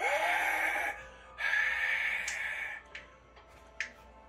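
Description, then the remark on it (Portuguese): Ice creaking with a sustained, eerie ringing tone, then several sharp cracking snaps at uneven intervals, with no voices. “Vocês escutam o barulho de gelo.”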